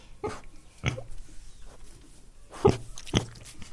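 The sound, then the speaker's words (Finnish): Four short grunts from Onni, a small micropig, two close together early on and two more near the end, over low background rustle. “No hyvä aika, täällähän on pieni possu.”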